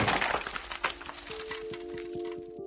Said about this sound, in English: He raised his arms as rocks pelted him, but too late. One of the larger boulders smashed against his head, and everything went dark.